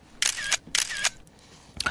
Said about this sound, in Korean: 사진 찍는 소리입니다. 찰칵찰칵.